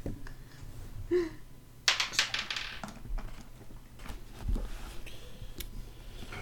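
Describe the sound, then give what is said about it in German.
Dice clatter across a tabletop in a quick burst of sharp clicks lasting about a second, followed by a few softer scattered taps against a quiet background, as players roll a stealth check in a tabletop role-playing game. “Jeder würfelt äh, einmal Stealth für mich.”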